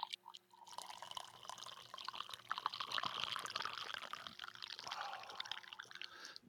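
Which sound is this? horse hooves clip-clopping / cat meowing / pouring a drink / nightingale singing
pouring a drink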